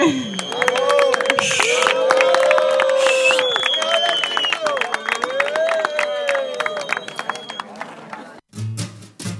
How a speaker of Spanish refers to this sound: Un aplauso muy fuerte.